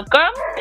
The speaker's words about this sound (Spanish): si escuchas un perro ladrando al final del programa